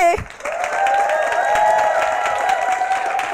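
An audience breaks into steady, dense applause that lasts about three seconds, many hands clapping at once, with a long, held high-pitched tone running through the clapping.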